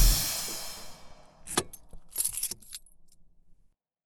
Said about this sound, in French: Avec son moteur V12, plus aucun risque de se faire arrêter par les flics. Écoutez son bruit de dingue. En plus, cette voiture roule qu'au rouge